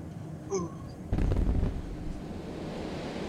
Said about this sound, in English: large explosion into the runway of the military of a military base.